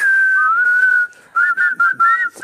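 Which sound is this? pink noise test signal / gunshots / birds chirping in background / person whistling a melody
person whistling a melody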